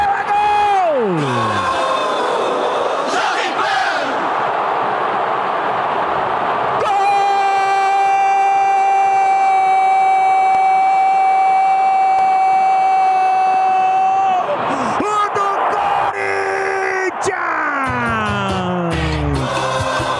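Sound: stadium crowd roaring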